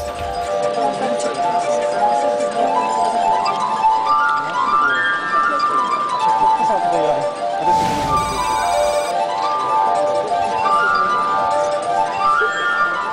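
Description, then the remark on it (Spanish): Glass harp music played by a street performer with his fingers on wine glasses: sustained, shimmering ringing tones weave a slow, flowing melody, fairly loud, with a brief rubbing swell partway through. “Jamás nos imaginaríamos que están tocando con copas.”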